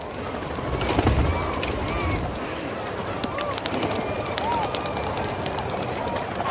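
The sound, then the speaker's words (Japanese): A dense chorus of rhinoceros auklets returning to their island after sunset, hundreds of thousands at once, gives low, groaning calls over and over, mixed with constant fluttering wingbeats and sharp flapping bursts as many birds fly in together. “ウトウたちは夕日が沈むと島に戻ってきます何十万という鳥が一斉に戻ってくるのですバサバサという音はウトウの飛んでくる音うなるような鳴き声がウトウの声です”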